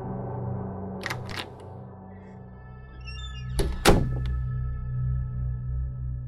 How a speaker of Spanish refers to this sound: No supe cuánto tiempo pasó, pero desperté al escuchar que alguien abrió la puerta de la entrada.